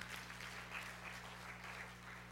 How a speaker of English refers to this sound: Yeah, give yourself a hand. That was awesome.